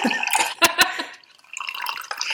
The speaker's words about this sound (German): Wer gießt sich hier gerade so laute Wasser ein? Wer macht hier sowas? Ich war das. Ich muss mir mal ein Teechen eingießen hier.